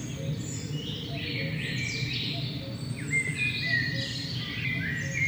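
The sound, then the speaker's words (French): A common wood pigeon coos in low, repeated phrases while other songbirds chirp and whistle brightly overhead, forming a steady, busy woodland chorus with no voices. “Merle noir, coucou gris, grille musicienne, rouge-gorge, mésange, citelle une Harmonie, Pigeon Ramier.”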